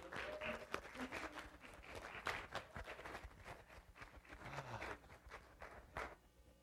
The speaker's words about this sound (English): the seniors that are graduating, come on up here so we can publicly humiliate. I mean, honor you. Yeah, you can give him a round of applause.